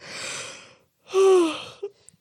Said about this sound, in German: kleinen Moment, ich muss kurz gähnen.